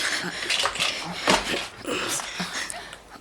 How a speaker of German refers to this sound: Das, das ist ein irischer Setter.